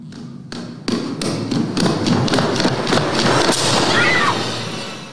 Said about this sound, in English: But then here it gets like she's looking at the dark hallway, and then here's the pitter patter.